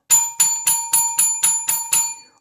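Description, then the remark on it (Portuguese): A small bell rings eight times in quick, even succession, each bright metallic ding sharp, the last one trailing off. No voices are heard. “É a hora do lanche. Escuta só, cadê o sino?”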